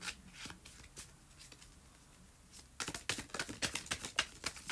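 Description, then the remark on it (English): A tarot deck being shuffled, starting with sparse, quiet riffles and then breaking into a quicker, louder burst of crisp flicking and slapping. No one speaks. “The Lovers is here at the bottom of the deck.”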